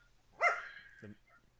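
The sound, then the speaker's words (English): A dog on a couch gives one short, sharp bark at moderate volume, with a brief low grunt-like sound a moment later, then quiet. “Got a guest on the couch. It's my dog, who I've been fighting with for the past twenty minutes.”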